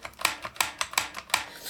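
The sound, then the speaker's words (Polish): A Braille label maker clicks as the button on its handle is pressed, each press advancing the tape one place forward: about five or six crisp mechanical clicks in a steady rhythm, with no voices. “Od dołu natomiast rączka ma przycisk, który właśnie trzeba naciskać trzymając to jak młotek, który to przycisk powoduje”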